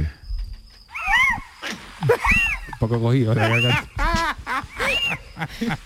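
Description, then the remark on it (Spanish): A voice imitates the call of a barn owl, a series of wavering, rising-and-falling hoots repeated several times, with a few words of speech mixed in between. “hace el sonido de la lechuza.”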